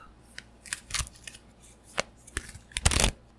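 Crisp, papery riffles and snaps as tarot cards are shuffled and two cards are drawn, irregular bursts building to a louder flurry near the end, with no one speaking.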